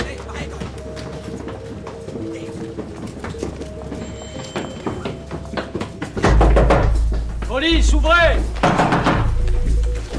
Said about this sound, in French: Une cavalcade dans l'escalier, des cris, une porte défoncée, des policiers qui pénètrent dans la planque alors que les agents d'Alliance étaient en train d'émettre vers Londres.